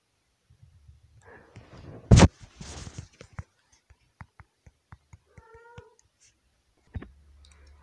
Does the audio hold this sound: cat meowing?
yes